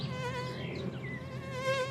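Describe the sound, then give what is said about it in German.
A steady mosquito whine from Ammersee mosquitoes drones continuously, its high harmonic buzz wavering slightly in pitch as the insects hover, during a one-hour test of which of three people gets bitten most. No voices are present. “Eine Stunde werden die drei abwarten, wen die fiesen Ammerseemücken am häufigsten stechen.”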